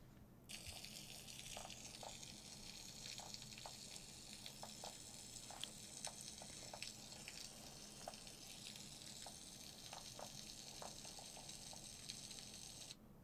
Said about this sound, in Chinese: 你看，所以刚刚听到那个鱼类合唱的声音，就你仔细听，它里面至少有好几种的鱼在在那边叫， 嗯， 有的是两声的，还有是一声的。